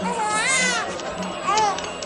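A newborn baby cries in two wavering, high-pitched wails, the first long and rising, the second shorter, against a faint background murmur. The baby has just been born on a leather mat inside the Kaaba.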